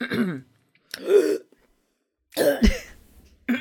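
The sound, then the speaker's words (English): Wet throat clearing and harsh phlegmy coughs come in three or four bursts separated by short pauses, with no speech in between. “all the phlegm is working out working out of my head.”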